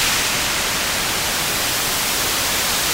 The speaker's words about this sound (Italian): Sei un pazzo, mi hai assordato eh, eh, con so, le cuffie. Eh, lo so, è così che fa il rumore bianco